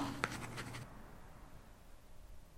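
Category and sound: household object, writing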